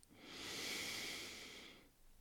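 A single long, deep inhale drawn in through the nose, an airy rush that swells and then tapers off over about two seconds, with no talking. It is an extra deep breath taken near the end of a guided relaxation exercise, to wake the body.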